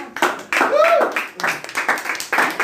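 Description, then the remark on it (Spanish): An audience at the Espacio Bohemio show in San Luis applauds with dense, steady clapping, and voices and a brief shout or cheer rise over the clapping early on before it continues in uneven waves. “Un aplauso para todos los que están acá.”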